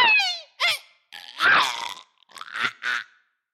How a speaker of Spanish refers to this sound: Y con eso se escuchó un crujido y un fuerte sonido muy distinto de los otros patitos.